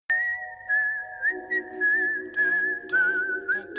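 A high, clear whistled melody hook repeats a short tune over a low, steady backing beat with punchy rhythmic hits, loud and upfront with no voices.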